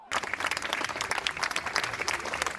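A crowd of academics at Boğaziçi University claps steadily as they march in protest and turn their backs on the rectorate building, a dense, continuous patter of applause that stays fairly even in loudness throughout, with no talking over it.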